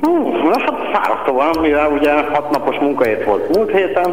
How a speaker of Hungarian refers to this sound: Kicsit visszhangzol, kihangosítva beszélsz velünk? Mm, nem, hanem egy olyan helyiségben vagyok, ami visszhangzik.